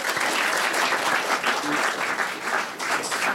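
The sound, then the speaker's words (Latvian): An audience applauds steadily, a dense, even wash of many hands clapping at a fairly loud level, sustained without pause for a few seconds. “Aplausi, jā, paldies!”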